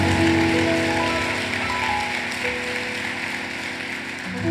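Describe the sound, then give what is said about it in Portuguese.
A crowd claps steadily for the Lord, a dense, continuous patter of many hands with a low sustained tone underneath. No one speaks. “Pode aplaudir ao Senhor, se é para aplaudir, aplauda o Senhor.”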